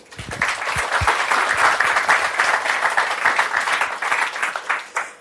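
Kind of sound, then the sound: crowd, audience applause welcoming speakers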